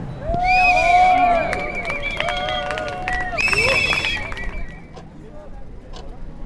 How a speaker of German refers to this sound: Die Demonstrantinnen hatten eine große Uhr aufgebaut und das ist auch das Ticken, was ihr hier hört.